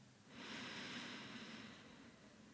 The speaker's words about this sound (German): Und jetzt atmen wir einmal vier Sekunden durch die Nase ein und bis in den Bauch hinein.